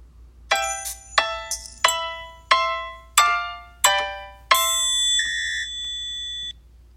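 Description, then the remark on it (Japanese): A short, carefree jingle sound effect called "Nonki" (carefree): bright, bell-like notes bounce along in a playful rhythm, six quick plinks, then a longer shimmering tone to finish. Clear, with no voices. “こののんきっていう効果音。まあ音から聞いても確かにのんきそうだっていう。”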